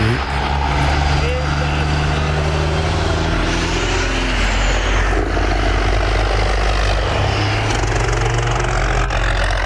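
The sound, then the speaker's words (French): A truck's engine brake (Jake brake) roars loud, a deep rapid-fire rumbling drone that holds steady for several seconds, with voices murmuring faintly underneath. “mettons, si on écouterait un, un bon Jake Break, là, je ne sais pas si on est capable d'avoir un bon son”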